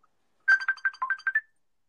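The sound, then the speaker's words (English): A phone ringtone for an incoming call plays a quick melodic burst of bright electronic tones, about seven short rhythmic notes lasting around a second, clear with no voices over it. “Yeah, yeah, somebody's calling in.”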